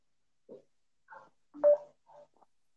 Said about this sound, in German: gerade hat man irgendwie Beep gehört. Jetzt schon wieder. Jetzt schon wieder. Ja, das ist, ähm, wenn ich den Ton anhabe. Das ist, wenn, warte. Das ist, wenn ich den Ton anhabe, dann hört sich so an.